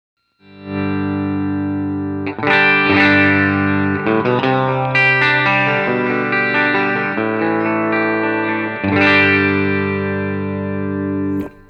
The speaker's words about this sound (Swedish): få höra hur, hur en eh, Peter Naglic custom made guitar låter. Ja, och här kommer lead-micken rent